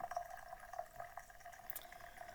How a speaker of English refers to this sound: let's get that coffee going. I got a new coffee maker, by the way. New espresso machine. I love it with an espresso machine.